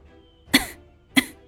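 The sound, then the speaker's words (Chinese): Two short, low coughs, evenly spaced about half a second apart, each a sharp burst that quickly fades, with no talking around them. “玉嬷嬷摊了摊手，然后又侧过头，低低的咳嗽两声。”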